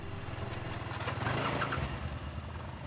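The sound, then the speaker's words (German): Motorcycle and car engines idling steadily outside the Maximilianskirche, waiting for a vehicle blessing: a low rumbling motorcycle throb with another engine underneath, continuous and fairly loud, with no voices. “Vor der Maximilianskirche warten mittlerweile Fahrräder, Motorräder und Autos mit ihren Besitzern darauf, dass Pfarrer Schießler sie einzeln segnet.”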